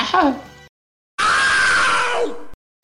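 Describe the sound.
A voice imitates a video game enemy's agonized scream when it is killed: a short strained cry with falling pitch, a brief pause, then a long, loud, sustained shriek that sags downward before cutting off abruptly.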